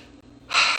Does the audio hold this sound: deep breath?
yes